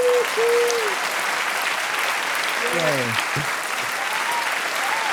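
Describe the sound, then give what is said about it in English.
A crowd applauds steadily and loudly throughout, a dense wash of clapping with a few brief cheers and voices rising above it. “my God, the crowd couldn't, they won't stop. They're so excited to see you guys.”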